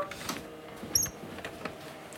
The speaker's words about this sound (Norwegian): Nå banker det på igjen.